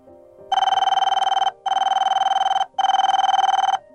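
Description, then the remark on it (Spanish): A telephone rings in three loud, bright bursts of rapid, buzzy trilling, each about a second long, separated by short pauses, as a call is made to a home at about 3 in the morning. No one speaks. “Cerca de las 3 de la mañana salí a la calle, caminé rápido y volví a llamar, con la respiración agitada.”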